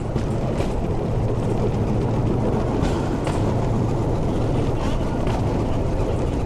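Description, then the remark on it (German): A small diesel rail trolley, a two-axle draisine whose engine is started with a pull cord, rattles steadily at 20 km/h along old narrow-gauge tracks on a tourist ride, its engine a loud, continuous low drone with faint rhythmic clacks from the wheels. “Mit einem Seilzug wird ein kleiner, ratternder Dieselmotor angeworfen und dann geht's mit 20 Kilometer pro Stunde über die Schmalspurschienen aus längst vergangener Zeit.”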